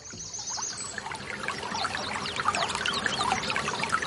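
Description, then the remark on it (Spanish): River water flows and gurgles steadily, a continuous bubbling babble with brief splashes and trickles scattered throughout, and no voices present. “A la orilla del río.”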